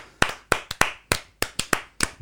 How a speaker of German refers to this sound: Also Applaus an die deutsche Rugby-Community da.